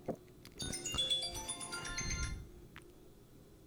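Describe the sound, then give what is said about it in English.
A phone ringtone plays a bright, electronic melody of quick stacked tones for about two seconds, clear, then cuts off into quiet background noise with no one talking. “With, between the phone call and that, I'm not looking myself in the mirror today going, you did a great job.”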